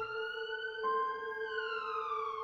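An ambulance siren wails continuously, a steady, piercing tone that slowly slides downward in pitch over a couple of seconds, heard alone without any voices.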